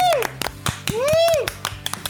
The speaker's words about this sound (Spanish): Siempre un fuerte aplauso